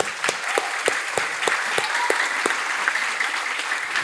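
A church audience bursts into steady applause for the church group, many hands clapping together in a dense, continuous patter with a few sharper claps standing out rhythmically above the crowd.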